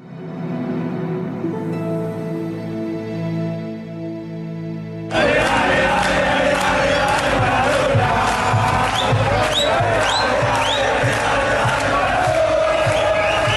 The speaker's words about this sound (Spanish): Con gritos y cánticos, miles de argentinos que acudieron a la Casa Rosada, sede del gobierno de aquel país, despidieron a Diego Armando Maradona, cuyos restos estaban siendo velados en este lugar.